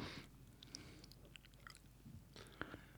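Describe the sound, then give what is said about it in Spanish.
Mouth sounds of someone eating an olive, with wet squelches and soft crunchy bites in an irregular rhythm, fairly quiet and heard alone without talking. “Oye, que me como otra oliva.”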